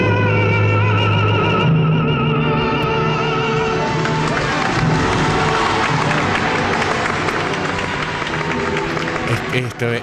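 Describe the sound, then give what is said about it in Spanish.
A large audience at the Teatro San Carlos de Nápoles bursts into a sustained, loud ovation with some cheering in the middle of Nessun Dorma from Turandot, swelling over orchestral music and a held operatic voice that keep going underneath the clapping; a historic live recording. “esta ovación la está recibiendo en mitad de la, pieza.”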